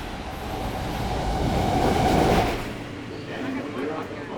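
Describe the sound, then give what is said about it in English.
Heard from inside a subway train being ridden, it rumbles and rattles along the rails, a steady loud roar that swells to a peak midway before settling to a lower, continuing clatter. “After more than a year, riding the subway for the first time was a nerve wracking experience.”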